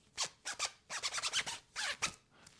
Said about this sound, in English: zipped up my hoodie and I'm all of a sudden we're making music, baby.